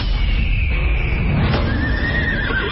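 A horse neighs loudly in a scene from the film The Lone Ranger, a drawn-out whinny with wavering high tones over a dense, rumbling background that fills the whole few seconds.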